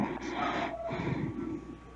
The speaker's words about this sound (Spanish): Respire más fuerte, respire más fuerte. Todo Guatemala quiere escuchar su respiración. Dice el pato. mandan? Seguir respirando fuerte, papi, no hay pena, aquí te oímos.